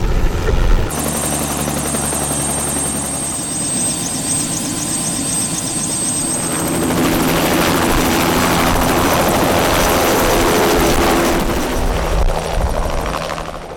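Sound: helicopter flying overhead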